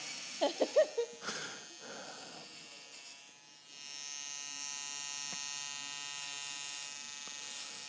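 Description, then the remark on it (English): Electric hair clippers hum while cutting a person's hair, in a steady buzz that swells and holds for several seconds, following a few short bursts of sound and a brief lull. “So to be honest, those other clippers are uh, for dogs.”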